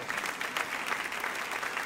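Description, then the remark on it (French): An audience applauds loudly for God, a steady, dense wash of many hands clapping at an even, sustained level, with no voices standing out above it. “Et en tant qu'enfant de Dieu, j'espère que vous êtes avec moi, mais je veux que mon cœur soit aligné sur le corps de Dieu et que tous ceux qui le croient disent Amen et applaudissent bien fort le roi de Dieu.”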